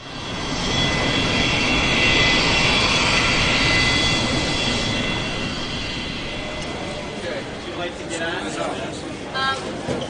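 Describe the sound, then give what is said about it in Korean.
A loud, steady roar of an airplane engine on a seven-hour flight from Seoul to India, with a high whining hum over the broad rumble, easing off slightly toward the end as faint voices come through. “서울에서 7시간을 날아서 도착한 인도.”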